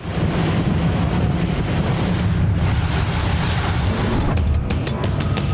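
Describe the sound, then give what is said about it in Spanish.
A powerful Defender motor launch of the Mexican Navy roars steadily across open sea around La Roqueta island in Acapulco, Mexico, engine drone mixed with rushing water, wave splash and wind buffeting the microphone, with no voices. “Estamos haciendo un recorrido por la isla Roqueta con elementos de la Secretaría de Marina Armada de México y vamos en esta potente lancha, la Defender, justo para ver dónde está el buque Shenshinda.”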